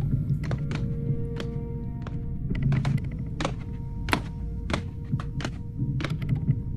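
Footsteps climbing wooden stairs toward an upper floor, the planks creaking: a series of irregular hollow thunks and knocks over a steady low rumble, with no voices.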